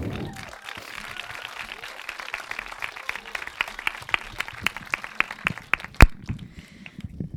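An audience applauds for several seconds, a dense wash of many hands clapping with some sharper individual claps standing out, ending with a loud single clap before fading.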